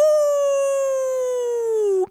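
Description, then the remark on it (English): A person voicing the wolf in a Little Red Riding Hood play howls like a wolf, one long sustained note that slowly slides downward in pitch over about two seconds before cutting off abruptly, loud. “We have the wolf. Oh, yeah. I'm the wolf.”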